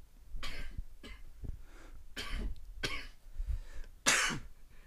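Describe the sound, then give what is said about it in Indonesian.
Several harsh, fairly loud coughs in a row, about five or six bursts over a few seconds with the last one the sharpest, and no talking in between. “Tapi kok batuk-batuk ya?”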